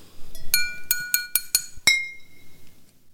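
Several glasses clink together in a toast in quick succession, about six bright, ringing taps with shimmering overtones, clear, the last one ringing out longest before quiet background.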